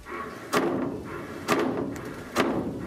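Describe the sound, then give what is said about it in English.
Water hammer in household pipes: three sharp, heavy bangs about a second apart, each a hard thud with a short ringing decay, loud, with no talking. “So if you're hearing banging in your pipes that sounds like this,”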